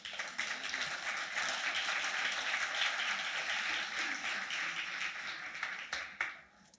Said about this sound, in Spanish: Le damos un aplauso a él.